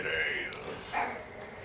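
A rough, dog-like growl made by a human voice at a woman, in two rasping bursts, the second shorter and sharper, with no real dog evident.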